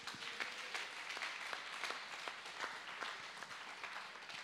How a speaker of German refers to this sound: Lass uns unseren Technikfreunden mal einen Applaus geben. Und überhaupt, überhaupt allen, die irgendwie mitgearbeitet haben, lass uns ihnen mal einen Applaus geben.